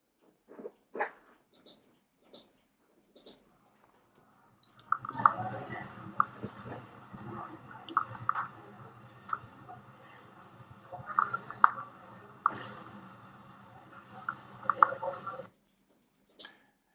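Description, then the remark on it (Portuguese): Dry grinding crackle of joint crepitus in a patient, starting with a few scattered clicks, then a steady rough grating with irregular pops for about ten seconds, fairly quiet. “Isso é um barulho de crepitação.”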